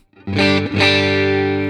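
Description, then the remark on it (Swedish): An electric guitar played on its middle pickup, with a slightly driven, effected tone: one chord struck, then a second that rings out steadily to the end, with no talking. “Och mittmicken som är lite cool faktiskt låter så här.”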